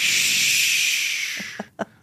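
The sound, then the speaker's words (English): A loud, steady rush of recorded ocean wave sounds playing as music in a room at a massage place, hissing evenly before fading away near the end, where a few brief soft bumps follow. “So in this place, there is extraordinarily, in this room, there's extraordinarily loud ocean wave music playing, mm. ocean wave sounds playing, right?”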